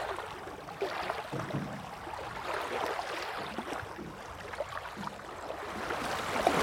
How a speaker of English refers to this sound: Just throwing little pebbles into the water.